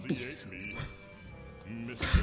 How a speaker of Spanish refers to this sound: Entonces, cuando piso el piso de madera que crujía, en un momento siento drin. No me digas. ¿Tocaste algo? Pisé algo que era un timbre que estaba en el comedor para llamar a la servidumbre.